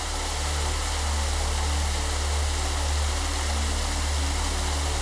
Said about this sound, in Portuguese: você percebe o barulho de uma cachoeira se aproximando. Uma cachoeira de energia cósmica.